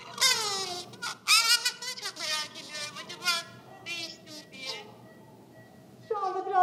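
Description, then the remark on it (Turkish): A newborn baby girl under hospital treatment for high fever and breathing difficulty cries in a series of high, strained wails with brief gasping pauses, falling quiet near the end before one more loud burst of crying. “çocuk ağlıyor.”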